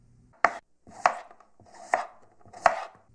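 Slicing a bell pepper into rings: four crisp knife cuts thud onto a cutting board at an uneven, unhurried pace, each with a brief crunchy attack. No voices are heard.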